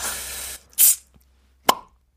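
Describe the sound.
A person imitates opening a bottle with their mouth as a party trick: a breathy hiss like escaping gas, a short pause, then a sharp pop. Fairly loud, with no talking over it.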